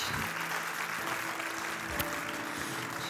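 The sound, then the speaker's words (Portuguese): A church audience applauds in a dense, steady wash of clapping that holds at an even, fairly loud level for the full few seconds, with no clear voices rising above it. “Pode aplaudir.”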